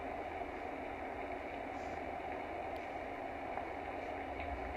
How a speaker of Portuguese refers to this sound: Você percebe que esse barulho te remete ao útero, aquele momento onde você estava seguro, protegido. Dentro da bolsa das águas.